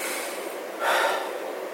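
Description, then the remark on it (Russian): A voice imitates someone with psychogenic breathlessness sitting at work gasping for air, a steady breathy rasp that swells into a harsher, louder intake near the middle before easing back, without words. “Не, неудовлетворенность вдохом, да, когда люди задыхаются, не хватает дыхания, головокружение.”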